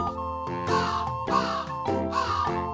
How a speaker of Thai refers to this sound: วันหนึ่ง ขณะที่เขาเดินอยู่ในกรม อีกาเห็นเขาจึงส่งเสียงร้องทักทาย